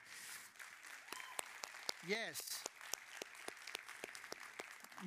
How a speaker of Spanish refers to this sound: Un aplauso